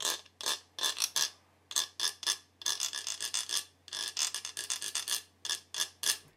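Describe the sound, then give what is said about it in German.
A reindeer antler is played like a Stone Age rhythm instrument, scraped against another antler in a steady rhythm of short, dry rasping strokes, fairly loud, with brief pauses between groups and no voices. “äh, sondern das ist jetzt hier in dem Fall ist es ein Regeweih und ich spiele es mit einem anderen Regeweih und das klingt dann so.”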